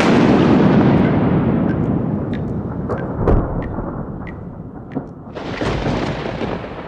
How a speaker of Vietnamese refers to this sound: Tiếng sấm vang lên rền trời kèm theo đó là những tia chớp giật liên hồi